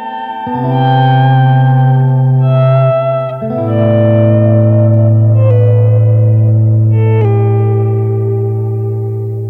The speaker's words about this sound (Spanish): Y ya no se trata solo de agua, sino de una voz con su propio eco a cuestas.